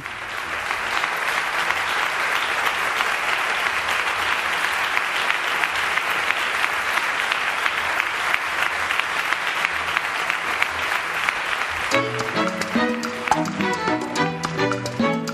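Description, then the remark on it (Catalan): Parliament deputies give a long ovation to a deputy walking back to her seat in tears, clapping in sustained, dense applause that holds steady at a loud level; near the end a few sharper, more separate claps stand out. “Tots els diputats, excepte alguns de Ciutadans, van ovacionar llargament la diputada que marxava cap al seu escó plorant.”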